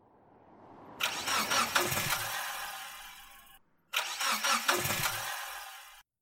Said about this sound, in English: You keep trying to restart your car on the motorway when you smell something odd.